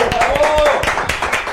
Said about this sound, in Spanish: Aplausos al doctor.